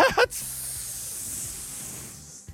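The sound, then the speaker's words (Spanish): A voice imitates a helium balloon deflating: after a short vocal onset comes a steady, airy hiss lasting about two seconds, held at even strength before tapering off near the end. “… teme ser un globo de helio que se hace...”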